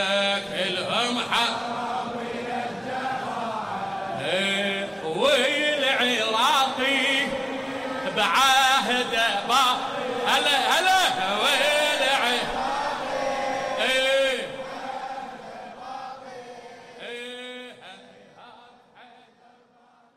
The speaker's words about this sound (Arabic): وبساحة رياض الصلح تحولت الردة لأغنية على لسان أعضاء الفرقة انتشرت بين المتظاهرين اللبنانيين